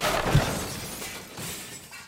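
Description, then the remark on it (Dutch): An LED television with ambient light breaks with a sharp crash of shattering glass, followed by a scatter of tinkling fragments that trail off over about two seconds. No one speaks. “Ze leven een luizenleventje in een residentie, voorzien van alle moderne gemakken, waaronder wifi een magnetron, een bubbelbad en een LED-televisie met ambient light. Totdat deze het begeeft.”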